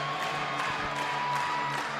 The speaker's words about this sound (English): Professional volleyball has made a statement. This building looks spectacular. The crowd is here, and we're about to play volleyball. It's about to be first serve of history.